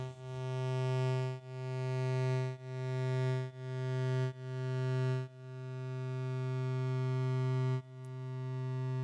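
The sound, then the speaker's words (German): A steady, buzzy modular synthesizer tone on one pitch loops endlessly, retriggering about seven times with randomized attack and decay, so each note swells in differently, some snapping in quickly, one rising slowly over several seconds, with no talking. “Das heißt, der Ton ist mal schneller da, mal langsamer.”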